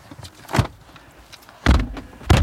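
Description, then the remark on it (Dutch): Car doors of a BMW 4 Series slam shut in three solid thuds spaced about a second apart, the last two heavier, with quiet rustling in between and no talking. “Dat geluid hè, van die deuren.”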